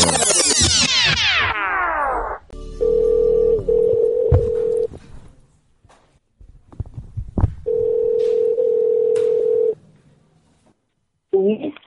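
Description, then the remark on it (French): A telephone tone of a prank call broadcast on Radio 2B's Morning Live, made to the mobile phone of the deputy headmaster of the lycée Rémi Bello, sounds twice as a long, steady electronic hum, each lasting about two seconds with a pause between, preceded by a sweeping falling tone and scattered clicks. “Morning Live avec euh, le canular téléphonique de l'agent de police marseillaise”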